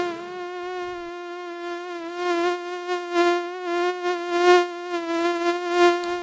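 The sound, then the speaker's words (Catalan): A steady, high-pitched insect buzz of flies and mosquitoes drones continuously, wavering slightly in loudness and pitch, with no voices. “les petites bèsties hi havia abelles, vespes, fusserús, aranyes, formigues, pusses, mosques i mosquits, animals que piquen i que empipen.”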